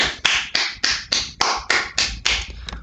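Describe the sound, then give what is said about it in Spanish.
Steady, even clapping to welcome December: about ten sharp, bright claps at a regular pace, each ringing briefly before the next, with no voices over them. “Llegó diciembre, un aplauso.”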